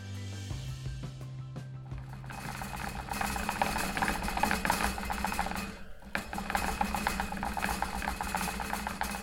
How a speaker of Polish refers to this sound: to chomik biegający po kółku.